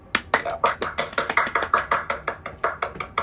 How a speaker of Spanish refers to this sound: diciéndole a todo el mundo, bienvenidos a Café Pandora. Aplausos.